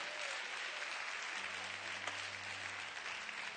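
A church audience claps together for the Lord during a morning service, a dense, steady wash of applause lasting several seconds, with a low sustained organ or keyboard tone entering underneath partway through.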